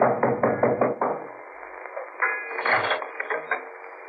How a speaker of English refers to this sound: At the boat landing, the ocean was acting up sign read Peterson's boats for hire, day or week. I knocked for Peterson.